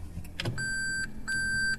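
A car's reverse warning chime sounds in two long, steady electronic tones as the car is shifted into reverse to park at the Red Brick Warehouse, switching the navigation screen to the rear camera view, preceded by a brief mechanical clunk of the gear shift, with a low engine idle humming underneath.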